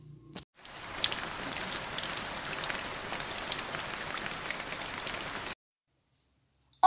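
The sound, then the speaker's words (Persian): Steady rain patters onto a hard surface for about five seconds, a dense, even hiss of droplets at moderate loudness, then cuts off abruptly into silence. “توسا هم میچسبه به در تا بارون خیسش نکنه”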